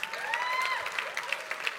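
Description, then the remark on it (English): An audience claps steadily, a dense wash of overlapping hand claps with a few scattered cheers and whoops rising over it, sustained at an even level throughout. “Yeah, you clap it up.”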